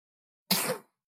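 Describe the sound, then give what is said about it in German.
A single small sneeze from a baby boy, short and abrupt with a breathy burst, with no talking around it. “Gesundheit, kleiner Mann.”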